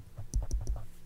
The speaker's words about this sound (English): Hear that? That's my phone. I'm literally swiping up.